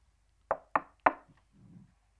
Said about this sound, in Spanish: Viene la visita de Dios. Viene Dios en acción a visitar a su iglesia. He aquí, yo estoy a la puerta y llamo.